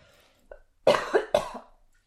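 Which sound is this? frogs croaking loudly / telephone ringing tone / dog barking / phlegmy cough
phlegmy cough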